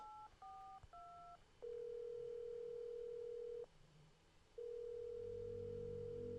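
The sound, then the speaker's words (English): Three quick electronic keypad beeps from a phone being dialed to make a call, followed by a long steady telephone tone that stops for a moment and then resumes, clear, with no talking. “I think I'll tell you like in a moment after I make this phone call.”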